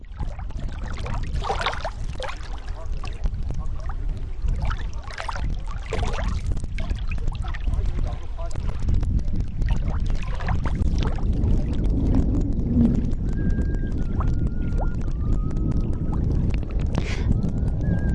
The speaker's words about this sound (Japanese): まずこのため池の音です。